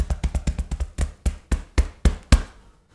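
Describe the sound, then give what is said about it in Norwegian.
A person beats their own chest with a fist in a rapid burst of dull, low blows that gradually slow and grow heavier, ending in a few widely spaced booming thuds before silence. “Se for deg Tarzan som banker seg sjøl på brystet”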